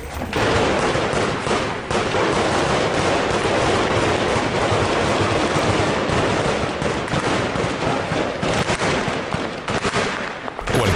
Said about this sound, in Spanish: de ustedes que vea estas imágenes y escuche esos balazos creería que son imágenes directamente de Irak, pero se equivocan. Esta balacera se suscitó nada más y nada menos que en Jalapa, Veracruz, México